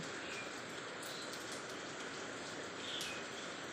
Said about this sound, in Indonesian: tiba hujan turun ke permukaan.